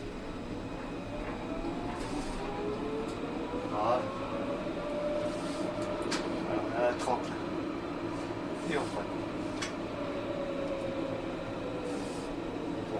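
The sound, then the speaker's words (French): A tram or train pulls away after its doors have closed and accelerates at full throttle, its electric motor whine rising steadily in pitch over a constant rumble, with occasional clicks and rattles along the way. “Quand les portes sont fermées, normalement le voyant vert, ici le voyant s'éteint, donc le voyant est éteint, ça veut dire que les portes sont fermées.”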